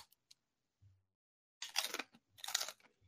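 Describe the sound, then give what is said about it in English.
Two loud crunches of someone biting and chewing crisp tortilla chips with guacamole, a short pause between them, with no talking and only faint clicks around them. “Okay, I haven't eaten it, but I'm just gonna eat it off camera this time.”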